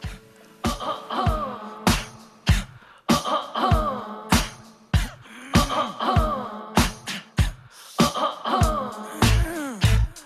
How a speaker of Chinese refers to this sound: 其实它描绘的是现代人的爱情观，以前巧舌如簧的示爱，如何变成了一连串尴尬的咳嗽？